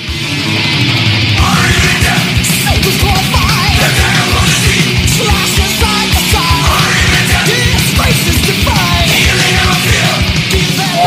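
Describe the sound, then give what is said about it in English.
A fast, loud thrash metal passage by a band from Phoenix plays continuously, with dense distorted guitars, rapid pounding drums and shouted vocals filling the whole stretch. “I went with the band from Phoenix …”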